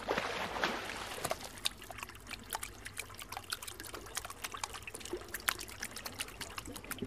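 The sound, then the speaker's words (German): A small brook trickles and babbles steadily, with constant bubbly splashes and little liquid pops. No voices, just the continuous flow of shallow running water. “Ich gehe da jetzt rein und immer weiter den Bach lang.”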